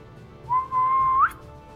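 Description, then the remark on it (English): A person whistles a single clear, sustained note that holds steady for under a second and then slides upward at the end, fairly loud with no talking. “And he is going to whistle again”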